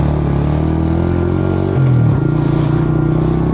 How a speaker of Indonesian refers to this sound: Setelah menyalakan klakson, dia langsung melajukan motor meninggalkan senyum Karse.